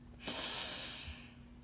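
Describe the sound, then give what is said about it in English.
A voice imitates Grover taking his nose out of a jelly bean bag to sniff: a single sharp, drawn-in sniff through the nose, breathy, lasting under a second before trailing off into quiet hum. No talking. “He took his nose out of the jelly bean bag long enough to sniff.”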